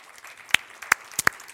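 A few scattered claps from an audience, four sharp, bright hand claps at irregular intervals with no talking, sparse rather than a full round of applause.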